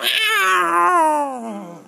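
A single long, drawn-out cat meow, loud, sliding slowly downward in pitch over about two seconds before fading, with no one talking.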